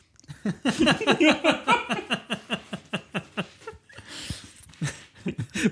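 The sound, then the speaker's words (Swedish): Crisp crunching of a person sitting and chewing gingerbread cookies (pepparkakor), a steady rapid series of bites and chews with brief pauses and soft breaths between them, no talking. “Sitter och käkar pepparkakor.”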